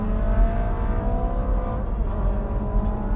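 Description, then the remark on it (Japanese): A small-displacement car engine revs loudly and continuously, a buzzy, rough drone with a steady pitch that wavers slightly. The engine is loud but the car is not fast, and no one speaks. “音はうるさいですけどスピードはないっていう しょうがないの排気量がちょっとね”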